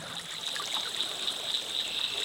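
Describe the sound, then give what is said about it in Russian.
Steady river water flowing and trickling, a continuous bright rushing hiss with soft gurgles, even in loudness throughout, with no voices. “Она текла всегда, везде, во всех и всюду. Река жила и давала жить другим, живя уже в них.”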